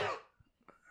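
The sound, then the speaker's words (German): A single sharp sneeze bursts out, loud and breathy, then trails off quickly into quiet with faint shuffling noises afterward. “Sorry. Ja, Gesundheit.”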